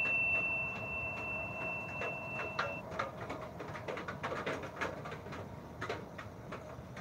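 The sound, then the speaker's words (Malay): A gecko's quick series of sharp, dry clicking chirps sounds over a steady noisy background, with a thin high whine fading out partway through. “Dengar tu Orang cakap kalau hmm. dari cicak maknanya dia dah dekat situ”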